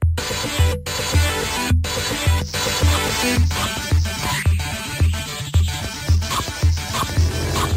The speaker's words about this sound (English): Yep, what you're hearing there is the sounds of the fantastic 720 degrees.